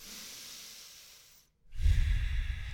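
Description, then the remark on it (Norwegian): A person breathes slowly and deliberately: a long, soft exhale, a brief silent pause, then a fuller, louder breath with a breathy rush. “Og så puster jeg.”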